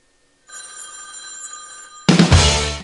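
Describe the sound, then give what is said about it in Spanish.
A telephone bell jingle on a radio music show, signalling that a new song is coming, rings steadily with bright, high tonal chimes for about a second and a half, then gives way abruptly to a louder, fuller burst of music. “cada vez que escuches ese timbre, cada vez que escuches ese timbre, eh, es porque se viene algo nuevo, ¿no?”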